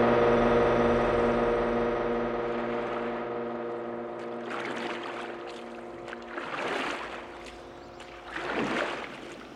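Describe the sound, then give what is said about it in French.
Oars dip into water in three slow, regular splashing strokes as a boat is rowed across to the other bank on a sunny day with birds about, each a soft rushing swell, following a few seconds of steady low humming. No one speaks. “Et je rame. Je traverse pour rejoindre l'autre rive.”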